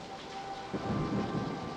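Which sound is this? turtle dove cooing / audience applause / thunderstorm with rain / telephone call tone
thunderstorm with rain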